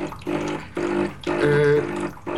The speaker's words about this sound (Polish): ekspres się płucze teraz. Pukanie się skończyło i mamy dźwięk taki.